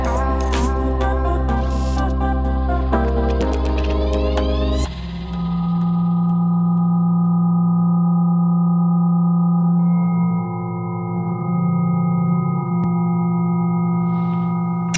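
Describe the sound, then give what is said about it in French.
Dense layered electronic tones with shimmering harmonics shift abruptly into sustained humming drones and high steady whistling pitches, an eerie synthesized soundscape with no voices; music created by scientists and an Argentine artist from spider web vibrations transcribed into music. “Alors ce que vous entendez là, c'est une création Basé sur les vibrations de toiles d'araignée, retranscrites donc en musique grâce à des scientifiques qui ont travaillé en collaboration avec l'artiste argentin”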